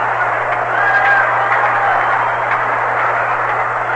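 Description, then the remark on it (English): A large stadium crowd of over 35,000 at a baseball game between the Dodgers and the San Francisco Giants roars and cheers in a dense, continuous wash of noise that holds steady for the whole stretch, with a faint low hum beneath it. “Big charge from the crowd. It's a big crowd tonight.”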